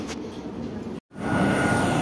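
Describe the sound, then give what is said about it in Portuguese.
Loud, steady roar of a TAP airliner's engines on the apron at Porto airport, heard while walking to a Ryanair plane, a thin high whine riding over it at first, broken by a sudden second-long dropout to silence before the roar resumes. “Esta parte é para quem nunca teve a oportunidade de estar à beira de um avião da TAP a fazer barulho enquanto vais para o avião da Ryanair, está bem?”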